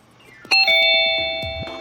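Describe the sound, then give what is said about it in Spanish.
A buzzer sounds once with a sudden, loud, bright electronic tone that rings steadily and slowly fades over about a second and a half. No one speaks. “Ya nos sonó la chicharra”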